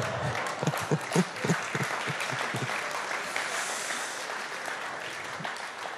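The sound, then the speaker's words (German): An audience claps loudly for a few seconds, with dense, steady applause that gradually thins and fades toward the end, and a few brief voices or cheers mixed in early on. “Anstatt klatschen solltet ihr lieber beten.”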